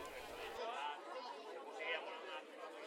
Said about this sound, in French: Imagine que tu es entouré d'une foule très joyeuse. Les gens font connaissance, certains ont entendu le sermon de Jésus sur la montagne, d'autres ont vu des miracles étonnants.